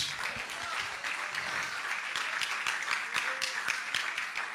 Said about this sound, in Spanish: Y a meter ese aplauso a Dios por ellos.